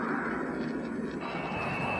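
A steady, loud airplane engine drone fills the whole two seconds, a broad rumbling roar with a thin whine rising in the upper register toward the end. No one speaks.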